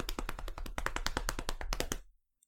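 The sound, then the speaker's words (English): A quick hand-tapped drumroll on a hard surface announcing a game of the year, about two seconds of fast, steady taps that stop abruptly, followed by near silence. “Um, our game of the year is drumroll.”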